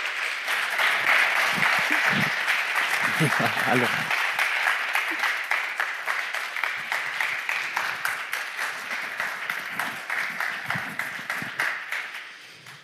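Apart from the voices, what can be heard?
audience applause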